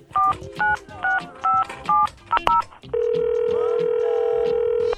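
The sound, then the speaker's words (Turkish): A phone number is keyed in to call a guest for an interview, with a quick series of about seven or eight dual-pitched touch-tone beeps, followed by a steady, sustained electronic tone, clear with no talking. “Bu özel görüşme için şimdi kendisini arıyoruz.”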